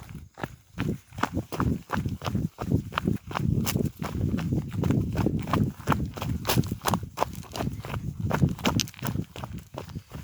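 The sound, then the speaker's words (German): Shoes running downhill through a forest to the Johann Waller Hütte on a partly very stony trail: quick, uneven footfalls land as crisp crunching thuds, one after another with no pause, over a steady rustling background. “Nun habe ich wieder Schuhe an und es geht schneller bergab durch den Wald zur Johann Waller Hütte.”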